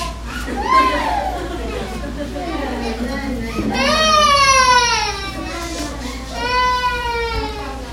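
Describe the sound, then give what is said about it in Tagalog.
Young children cry and wail in a room, their high, wavering sobs rising in loud bursts, with restless childish voices and background commotion throughout. “Dahil gusto ng Panginoon yung mga bata eh.”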